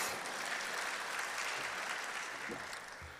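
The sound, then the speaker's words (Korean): A steady wash of clapping from a crowd, dense and even throughout, holding at a constant level and easing slightly toward the end, with no voices over it. “네, 경력 박수 주시기 바랍니다.”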